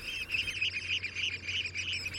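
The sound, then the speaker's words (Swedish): A dense chorus of oystercatchers calling, shrill piping notes overlapping continuously from many birds, steady and loud throughout with no pauses and no voices. “För det, det flimrar, blinkar i det svartvitt och så låter de ju hela tiden. Så häftigt. Kubik, kubik, kubik.”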